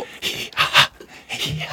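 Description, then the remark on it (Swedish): A person imitates heavy panting breaths: three loud, breathy huffs in quick succession, rough and airy, with no talking. “Man väljer ju inte sina andningsljud.”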